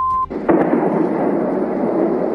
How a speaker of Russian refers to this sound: Первые сообщения о взрывах появились около трех часов ночи. Судя по сообщениям очевидцев, атака продолжалась больше часа. В сеть люди выкладывали страшные кадры с мощными взрывами.